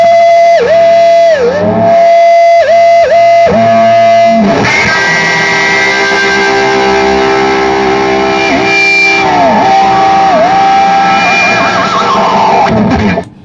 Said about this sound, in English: Uh, can you show me a little more of that sus- the Hendrixy sustain stuff you're getting to, the feedbacky shit? So, like, um, part me for the volume, it's, it's almost not loud enough. It needs more.